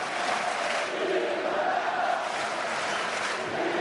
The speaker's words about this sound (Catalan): Segueixen els aplaudiments.